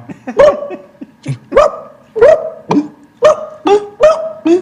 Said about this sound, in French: Faudra un son de, de chien kabyle, tu vois. Un, Tiens, un chien, un, un chien qui qui a, pas mangé depuis longtemps, un chien qui a soif.